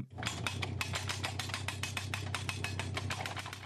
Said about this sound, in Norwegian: Ei maskin borer de blanke gjerdestolpene ned i jorda i naturreservatet. 900 ungarske soldater er med på å sette opp gjerdet, som de dekorerer med piggtråd.